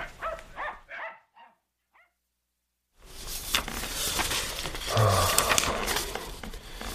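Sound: dog barking and whimpering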